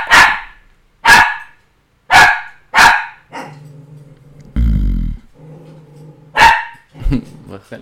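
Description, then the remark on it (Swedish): A dog barks loudly several times in sharp, spaced bursts, with a low rumbling growl in between and a louder snarl partway through. “Alltså, jag är så less på att min hund...”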